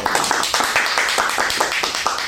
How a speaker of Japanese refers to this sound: 初めて拍手が いや僕第2回でも拍手してたんですよ